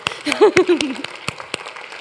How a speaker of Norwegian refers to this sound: Så vi avslutter med det, men wow, vi gir dem en klapp, vi gir dem en klapp, så kommer jeg meg òg.